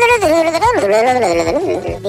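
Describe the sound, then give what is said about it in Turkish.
A warbling, distorted electronic ringtone, like a broken alarm clock, plays loudly for about two seconds, its pitch wobbling and bending up and down in an uneven, glitchy melody. “Şu Alarm... şeyler var ya bozuk alarmlardan çalsana.”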